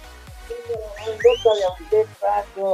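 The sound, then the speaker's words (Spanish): A person whistles a short run of tones, a wolf whistle, with one higher rising sweep in the middle, over steady low thumping in the background. “Nos manda un chiflido.”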